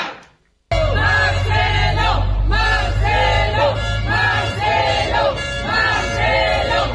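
A large crowd of supporters of Marcelo Ebrard chants the slogan "Vamos a ganar" in unison at one of his events, the short phrase repeated loudly in a steady rhythm about five times after a brief silent start, with low rumbling noise underneath.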